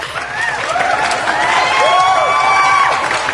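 A big crowd claps and cheers steadily, with dense applause washing over scattered whoops and high rising shouts, loud and sustained throughout.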